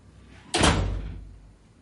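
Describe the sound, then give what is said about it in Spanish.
A single door shuts with a sudden, solid thud, its low-heavy impact ringing briefly before fading out into quiet. “La puerta se cierra.”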